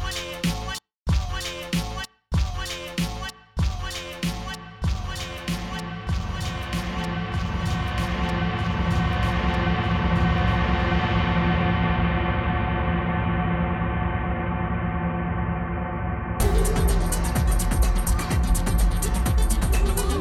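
A lush 1976 orchestral disco track plays with no vocals, opening on punchy stabs and breaks before settling into a steady, sustained groove, with a brighter, fuller section surging in near the end.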